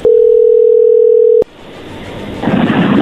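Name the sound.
telephone dial tone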